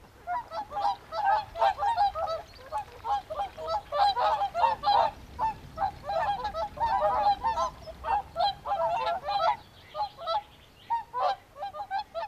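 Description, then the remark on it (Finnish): A flock of whooper swans calls continuously, overlapping bugle-like honks rising and falling in a dense, loud chorus, with no voices. “Kansainvälisesti tunnetuin säveltäjämme, Charles Hipeliuskin, ylisti joutsinen ääniä mahtipontisiksi ja inspiroitui niiden kuulemisesta.”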